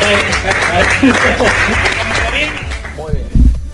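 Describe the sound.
A steady patter of applause fills the whole clip, dense and crackling, while voices talk and call out over it, ending with a louder thump near the close.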